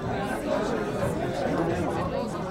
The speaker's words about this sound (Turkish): Kapı onun önünde açıldı ve kendini zengin giyimle yüksek sesle konuşan bir kalabalığın ortasında buldu.